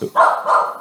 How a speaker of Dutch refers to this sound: Sorry, dat was de hond. Die zag opeens een eh, aantal Palestijnse arbeiders met de lift, de bouwlift, naar boven gaan. En eh, ja, die ging helemaal door het lint. Dus ik moest hem eventjes in een andere kamer zetten.